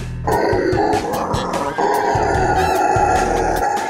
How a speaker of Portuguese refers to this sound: Vocês conhecem o macaco bugio?